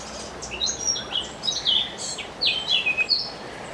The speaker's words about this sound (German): Ist ein recht häufiger Vogel in der Schweiz. Hat ein bisschen schwarz auf dem Kopf, darum eben Mönchsgrasmücke. Er ist allerdings recht schwierig zu sehen, weil er eher so ein im Blattlaub äh, sich versteckt. Aber man hört noch die im Garten.